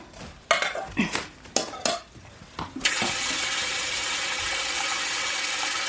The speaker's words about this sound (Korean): 강민이는 싱크대에서 냄비를 꺼내 물을 받다가 뒤를 돌아보았다.